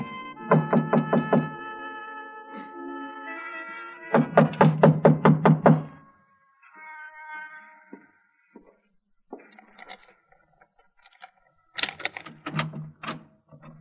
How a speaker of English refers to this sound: I tried the front door, but it was locked. I didn't think anyone would be there that late, but I knocked anyway.